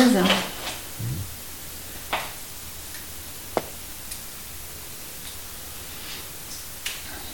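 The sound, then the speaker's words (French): Sparse water drops falling in a cave plink one at a time at irregular intervals over a steady hiss of ambient noise, each drop a crisp, short tick with a faint echo. “Et puis je vais vous inviter à sortir de vous-même pour écouter de nouveau les bruits extérieurs, les gouttes d'eau qui tombent.”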